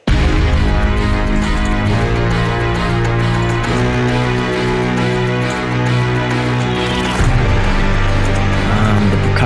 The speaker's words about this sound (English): And then Orchestral Hit, which is a sample, brass and a choir, and I think it sounds just lovely.